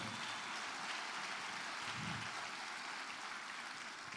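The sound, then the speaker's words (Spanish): Sustained audience applause given as a loud round of applause to the Lord, a dense, even wash of many hands clapping at steady volume throughout, with no voices standing out above it. “A darle un fuerte aplauso al Señor.”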